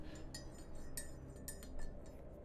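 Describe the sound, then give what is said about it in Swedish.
Cups clink together as coffee is poured, in a scattered series of five or six bright, ringing taps over a steady low rushing sound, with no voices. “Så innan vi hoppar in på avsnitt tre så kommer vi ha en eh, liten paus från våra sponsorer där vi häller upp kaffe och eh, helt enkelt fuktar våra strupar.”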